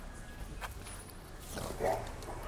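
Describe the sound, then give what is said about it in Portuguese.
A single short dog bark or yelp rings out near the end, from one of two dogs with their faces under the gate of a house, over a steady outdoor hiss with faint murmuring in the background. “Ficam dois cães com a cara embaixo do portão.”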